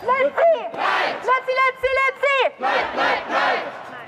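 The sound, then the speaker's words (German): About 200 demonstrators in Tübingen chant the slogan 'Lützi bleibt' in unison in the afternoon, in solidarity with Lützerath, loud, with rhythmic repeated phrases rising and falling in a steady cadence, no other talk over it. “Laut und unmissverständlich die Solidarität in Tübingen. Lützi bleibt, fordern rund 200 Demonstrierende am Nachmittag.”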